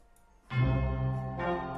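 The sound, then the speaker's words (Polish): A telephone rings loudly, a bright sustained ringing tone that starts abruptly after a short quiet moment and swells again near the end, with no one talking. “bo dzwoni telefon.”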